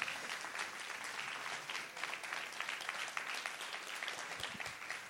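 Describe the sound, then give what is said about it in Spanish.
A crowd bursts into sustained applause for God during a Bible reading, a dense, steady patter of many hands clapping that fills the space for several seconds without letup. “Si usted lo cree, den un aplauso fuerte a él.”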